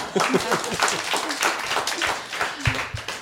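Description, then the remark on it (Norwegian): A crowd applauds the news of a couple having a new baby, a dense, steady patter of many hands clapping at moderate loudness for a few seconds, with a few voices faintly mixed in. “Applaus for det!”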